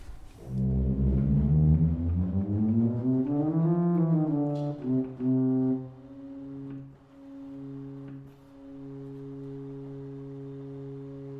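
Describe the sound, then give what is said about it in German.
Pipes of a church pipe organ, in a church built in 1913, sounded in turn to check for faults: deep, buzzy sustained tones that bend and slide in pitch, then settle into a steady held note after about five seconds. No one speaks. “Ich gehe jetzt einfach mal das Instrument komplett durch und dann sieht man schon, was man für Störungen hat”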